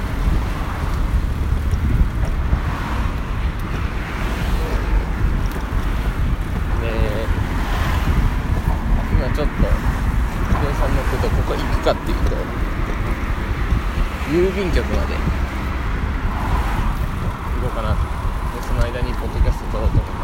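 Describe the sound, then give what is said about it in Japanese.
Steady, loud wind buffeting and rolling road rumble recorded with a phone in a Quad Lock case while riding a bicycle, a constant roar filling the whole stretch, with a muffled voice surfacing briefly underneath. “クワットロックのケースをただでくれたんでそれで今取れる環境にあるんで自転車乗りながら撮ってます”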